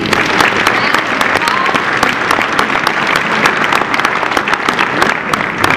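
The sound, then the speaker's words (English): A church audience breaks into sustained, steady applause for a child after a prayer, dense overlapping claps filling the whole stretch at a loud, even level, with a faint murmur of voices mixed in. “Let's give him a big”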